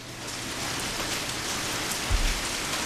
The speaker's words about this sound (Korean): 그러던 어느 여름날 퇴근을 하고 막 회사 앞을 나서려는데 갑자기 소나기가 막 내리는 겁니다.